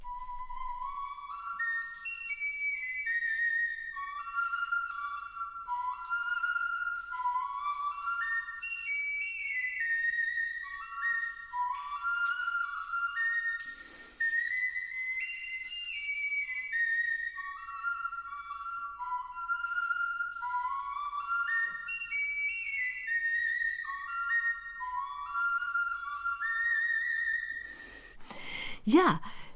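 A replica Ice Age flute, recorded inside the Hohle Fels cave, plays a breathy, wandering melody of stepping and sliding notes for nearly half a minute, with an airy, reverberant tone, ending in a brief rush of noise.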